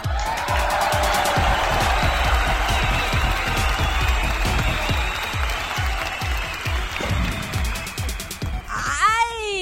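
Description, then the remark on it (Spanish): The audience of the children's program Cuentos para Vivir breaks into loud, steady applause for a young girl guest, a dense wash of clapping with crowd noise that holds for about nine seconds before a few high, sweeping cheers ring out at the end. “a quien le vamos a pedir al público que le mande un fuerte, fuerte aplauso.”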